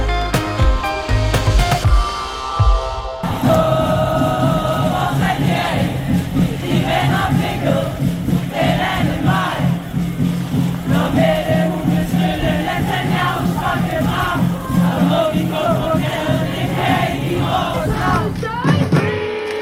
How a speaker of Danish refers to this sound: Ja, sådan her var, lød det altså, da tusindvis af demonstranter i søndags gik på gaden for at kræve øjeblikkelig og varig våbenhvile i Gaza, ubegrænset adgang til nødhjælp, en ende på den ulovlige belejring af Gaza